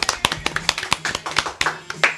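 A short burst of applause from a small group: quick, irregular, overlapping hand claps lasting about two seconds, with a faint steady low hum underneath.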